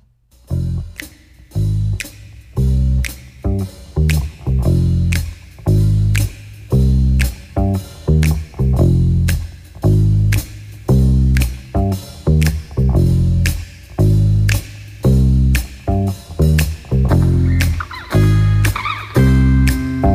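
A loud rock song plays with a steady, driving drum beat, sharp cymbal hits and a thick bass and guitar line, the rhythm pushing along evenly throughout.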